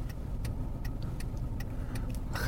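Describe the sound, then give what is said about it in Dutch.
A car rumbles with a steady low engine drone, a regular light ticking running through it, and a brief rise in noise at the very end. No one speaks. “voor die auto.”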